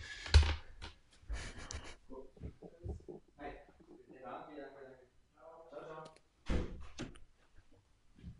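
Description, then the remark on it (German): A few dull thumps as someone goes to the door and a door clunking open, with muffled voices murmuring in between and a sharper knock of the door near the end, all at moderate volume. “Warte, ich renne mal kurz zur Tür.”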